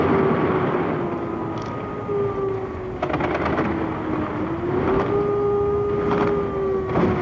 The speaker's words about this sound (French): La DCR vient d'entrer en action et bien que l'on n'entende aucun avion dans le ciel, ça tire de tous les côtés. On ne sait pas d'ailleurs très bien sur quoi parce que on ne voit pas d'avion, on ne les entend pas voler